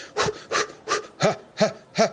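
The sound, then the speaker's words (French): A person imitates a dog's panting with six quick, evenly spaced breaths, each a raspy in-and-out huff, the last few slightly voiced, with no talking. “Parce que si on le choque, si on commence à faire des, respirations de chien qui...”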